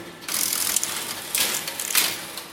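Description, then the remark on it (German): Mechanical selectors in a telephone exchange being driven back by a motor after the receiver is hung up, a dense whirring ratchet clatter with bright rapid clicking that swells in bursts, no talking. “dann werden die Wähler sozusagen mit einem Motor wieder zurückgezogen.”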